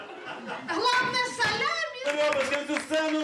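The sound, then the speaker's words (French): An audience in a bar in Kyiv, Ukraine, applauds steadily on a Sunday afternoon at a stand-up comedy show while voices laugh and call out over the clapping, a dense, lively wash of sound that carries through all three seconds. “Ce dimanche après-midi, les rires et les applaudissements remplissent ce bar de Kiev.”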